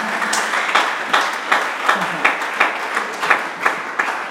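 An audience clapping together in a steady rhythm, roughly two to three claps per second, over a dense wash of many hands and crowd noise that continues throughout.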